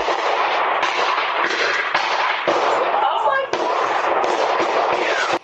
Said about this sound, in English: A ring camera caught the sound of gunshots that night.